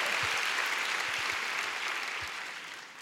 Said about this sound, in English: Oh, come on, you want to clap? Give the Lord a big clap, right? Hallelujah.